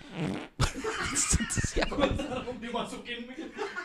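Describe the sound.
A voice blows a loud, buzzing raspberry that imitates a fart, with chuckling and snickering laughter around it.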